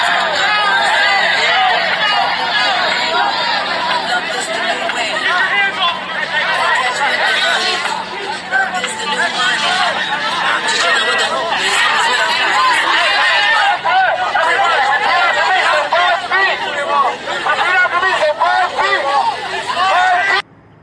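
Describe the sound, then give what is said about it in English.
A dense crowd of protesters occupying the streets chatters, many overlapping voices blending into a loud, steady hubbub that continues without pause for about twenty seconds. “All right, what you just heard was a, just a quick soundbite there of uh, there.”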